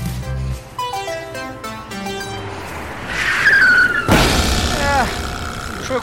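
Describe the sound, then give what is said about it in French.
Light music gives way to a rising squeal, then a sudden loud bang as a bus tire bursts on the roads of the Jura, followed by screeching skid sounds that fade as the bus slides to a stop. “Oh, vous avez crevé, non Aïe aïe aïe.”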